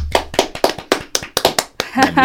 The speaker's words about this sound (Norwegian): Skal vi ta og skryte litt skikkelig av disse folka? Ja, det syns jeg. Synes jeg. jeg ja. syns de fortjener en stor applaus, rett og slett.